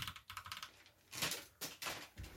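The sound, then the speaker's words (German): Rapid typing on a new Rocket Vulcan TKL Pro computer keyboard, a dense run of crisp clicky keystrokes with a few louder bursts, without any voices. “Digga, hört euch einfach diesen Sound an.”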